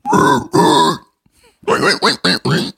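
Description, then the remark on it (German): A voice imitating a hardcore metal scream: two long, loud, raspy growls, a brief pause, then four shorter guttural bursts in quick succession, harsh and noisy throughout. “das, das sollte ein Schauter sein aus einer, aus einer äh, Hardcore-Metal-Band.”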